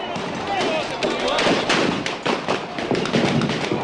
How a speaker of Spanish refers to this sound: La policía le comenzó a disparar. Gases, disparos de balas de goma, piedras que vuelan. Esta situación se ha descontrolado. Tremendo lo que está ocurriendo. Grandes enfrentamientos en la zona. La policía dispara contra los piqueteros.